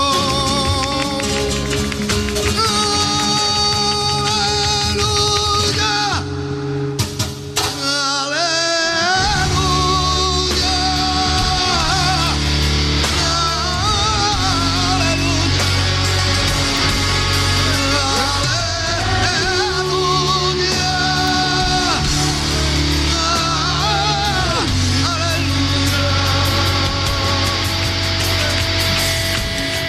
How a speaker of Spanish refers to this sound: Ese grito, ese aleluya de este concierto en directo grabado hace algunos años, la verdad es que adquiere una fuerza tremenda en nuestros días